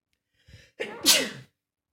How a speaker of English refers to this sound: Excuse me, I had to sneeze.